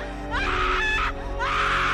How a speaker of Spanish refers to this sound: gritó horrorizada, mientras Keiko permanecía inmóvil, incapaz de reaccionar.